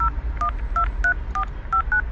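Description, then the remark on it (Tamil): The phone number of the head of the Bihar Cricket Association being dialed: a quick run of about seven short, electronic touch-tone beeps at a steady pace, each a clear two-note chirp, with no voices and a low hum underneath. “association head number வாங்கின உடனே அவருக்கு கால் பண்ண ஆரம்பிச்சாரு கங்குலி”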